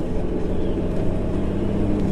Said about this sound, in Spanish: El sonido rápido de un auto que se viene acercando hacia donde están ustedes Le interrumpe.